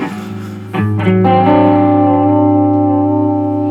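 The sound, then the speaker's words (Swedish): A lo-fi modulation effect gives a stumbling wobble to buzzy, distorted sustained tones. The pitch lurches unevenly a few times before settling into a loud held chord that keeps wavering. “det är nästan som att det blir en så här snubblande effekt när Ja.”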